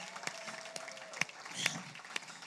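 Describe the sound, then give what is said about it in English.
An audience claps to welcome a pastor and his wife, in a loose, scattered burst, with sharp individual claps standing out over a steady wash of applause and faint crowd murmur. “You can do better than that. Clap, amen.”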